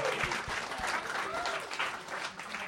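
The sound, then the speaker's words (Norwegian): A crowd bursts into steady applause, dense clapping at an even loudness throughout, with a few voices faintly mixed in beneath the claps. “Kan jeg få en applaus?”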